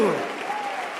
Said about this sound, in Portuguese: Aplauda o Senhor com força e alegria. Faça isso. Faça isso.